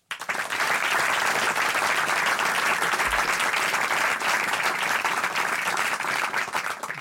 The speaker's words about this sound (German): Ihr Applaus.